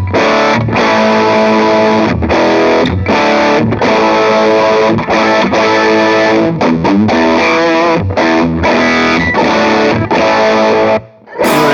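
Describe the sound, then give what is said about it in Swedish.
Loud electric guitar played through a boost pedal into a Honeybee overdrive pedal, strumming thick sustained chords in rhythmic bursts with brief gaps, a short silence near the end before one last chord rings out. “Och så slår jag på boosten nu då och då låter ska inte vara någon skillnad just nu i alla fall.”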